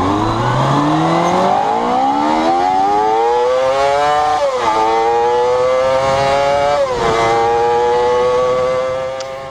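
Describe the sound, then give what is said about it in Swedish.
A motorcycle engine revs loudly, its pitch climbing steadily, then dips briefly twice as if shifting gears before holding a high, strained drone. No one speaks. “Alltså, lika väl som jag älskar ljudet av en vetvin som står och mullrar så kan jag älska en riktigt plågad rak fyra.”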